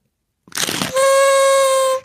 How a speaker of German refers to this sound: ich mag so ein bisschen das Ein- und Ausrollgeräusch noch, noch mehr als die Tröte selber.